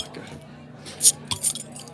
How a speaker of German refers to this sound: Jungs, wir sind ja hier in der Kneipe. Mhm, wollen, ja. wir, wollen wir das erste Bierchen öffnen?